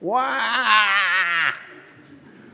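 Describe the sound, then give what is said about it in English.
An adult voice imitates a newborn baby's cry: one loud, sustained wailing "wah" lasting about a second and a half with a wavering pitch, then it breaks off into near silence. “when he says that when we think about human thirst, uh, the very first thing we did probably when we entered this life, he says, was to make a sound like this.”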